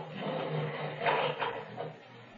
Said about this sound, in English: I heard the sound of the lift gates at the other end of the passage. Did I really hear it, or was it in my imagination?